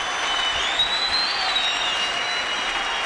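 A crowd applauds in a dense, continuous roar of clapping, with a few high whistles and cheers rising above it. The sound stays steady and loud throughout, with no talking.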